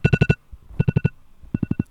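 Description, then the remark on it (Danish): An alarm ringtone beeps in three quick bursts of four tones each, loud, with short pauses between groups and no voices; the alarm is ringing for the third time, at 6:50. “Alarmen ringer for tredje gang, nu klokken 6.50.”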